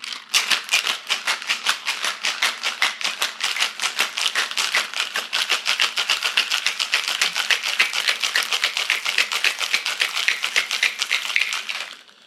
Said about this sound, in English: It goes into the shaker. Put some ice into the shaker. And as usual, I will shake this away from the microphone.